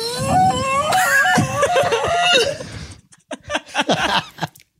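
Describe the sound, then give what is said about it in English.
A voice imitates an ancient sea glass conch announcement horn with a loud, sustained, wavering tone lasting about three seconds, then breaks into short choppy bursts of laughter. “What sound does the ancient sea glass conch announcement tube make? Okay, it goes like this.”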